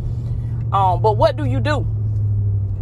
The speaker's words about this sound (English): Y'all excuse the noise. Like I said, it's a man with a, a loud truck right beside me.